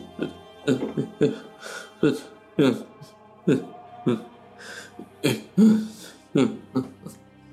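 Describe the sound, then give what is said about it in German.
A man, the character Ismark, in a church, clears his throat over and over, about a dozen short, harsh, gravelly bursts in an uneven rhythm, fairly loud, with no other sound between them. “Ismark guckt zu dir rüber, da ist und räuspert sich dann.”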